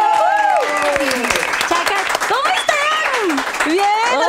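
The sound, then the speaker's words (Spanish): Studio audience applause on a television show welcoming three guests, a steady dense wash of clapping lasting a few seconds, with high whoops and cheering voices rising and falling over it. “Marisol González, Sofía Rivera e Inés es un aplauso ahora por favor.”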